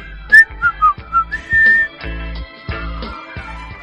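Someone whistles a short, bright tune with several quick chirping notes and one longer held pitch, over a steady musical backing with regular low thumps.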